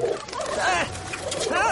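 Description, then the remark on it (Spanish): Pigeons in Paris coo in soft, throaty warbles, two or three rolling calls overlapping in a short burst, against a faint steady background. “Las palomas le acosan.”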